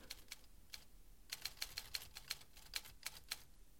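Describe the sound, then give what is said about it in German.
Quiet, irregular typewriter keystrokes clatter in short bursts as a woman types on the first floor of a house, about a dozen sharp strikes with uneven pauses, sounding somewhat muffled, with no voices present. “Da schrieb doch jemand im ersten Stock auf einer Schreibmaschine, die Frau Professor, die hatte ich vergessen”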